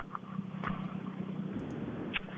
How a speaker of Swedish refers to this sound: Ja, jag har fått hit en bil.